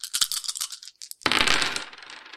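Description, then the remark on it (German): Dice rattle in a quick run of sharp clicks, go quiet for a moment, then tumble out in a loud clattering burst that fades over the next second; the dice are rolled to resolve a shot at a stormtrooper in a game. “Okay, ich schieße auf die linke Sturmtruppe. Würfel mal.”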